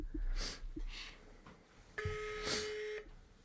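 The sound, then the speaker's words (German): A mobile phone gives a single steady electronic beep lasting about a second, preceded by a few soft, breathy rustling bursts. “Halt, das ist dein Handy.”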